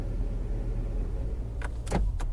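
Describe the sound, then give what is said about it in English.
A low, steady rumble of an idling Uber car interior, then a few sharp knocks and thumps near the end as two passengers climb in and a door moves, with no one talking. “I talked to them about it in a car, and fortunately, I was driving Uber, so it all worked out.”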